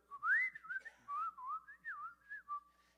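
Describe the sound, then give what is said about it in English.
A person whistles a bird-like song, a series of warbling, gliding notes rising and falling in quick phrases, clear and fairly loud with no talking. “and there's this bird singing to me, but I can't find it.”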